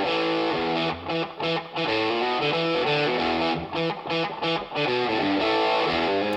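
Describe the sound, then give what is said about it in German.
A distorted electric guitar, recorded with a room microphone and given Valhalla Vintage Verb Dirty Plate reverb, plays chugging riffs with rhythmic stops, sounding loud and full, with a roomy, reverberant sheen around the notes. No voices. “einen Hall drauf. Ich habe mich hier mal für den Valhalla entschieden, für das Vintage Verb und hier für die Dirty Plate”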